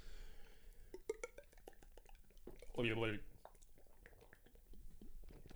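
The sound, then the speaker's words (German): Two people clink half-litre beer bottles together in a quick toast, followed by soft liquid gulping and swallowing sounds, with a short voiced hum in the middle and a few small clicks around it. “Ja, also entweder stoßen wir jetzt an und trinken ja.”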